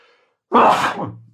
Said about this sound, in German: Boah, wer dreimal niest, ist doof.